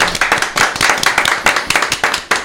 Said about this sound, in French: Du coup, je pense qu'on peut les applaudir, les encourager.